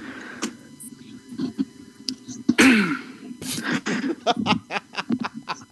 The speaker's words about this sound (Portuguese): Tossiu, tossiu, tossiu, na hora de começar, tossiu de é novo.